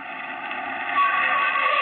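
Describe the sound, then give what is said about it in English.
A steady engine rumble grows slightly louder partway through as a car pulls up out in front and idles. No one speaks. “You jump as a car pulls up out in front.”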